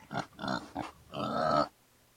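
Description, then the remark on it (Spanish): Angry, pig-like grunting voiced by a person as an aardvark: three short, rough snorts followed by a longer, drawn-out growl, fairly loud, ending abruptly into quiet. “Dijo furioso el animal y se fue gruñendo en busca de la enciclopedia del mundo animal.”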